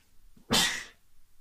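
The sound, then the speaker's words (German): A single sharp sneeze bursts out after a brief intake of breath, loud and hissy, then fades quickly into quiet room tone. “Gesundheit.”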